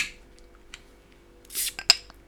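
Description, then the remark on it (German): A bottle of Moi Bier Helles, a Bavarian lager brewed in Freising, is opened: a short, bright hissing fizz rises and fades, followed by a sharp glassy click, with faint small clatter and no talking. “Und mit diesem Zisch sind die Österreich-Wochen beendet.”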